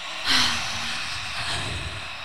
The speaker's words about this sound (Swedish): som när man immar en spegel med munnen, så man kan börja öppna munnen först för att testa. Mm, jag gör det nu då.